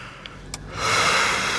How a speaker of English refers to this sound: I'm going to yawn.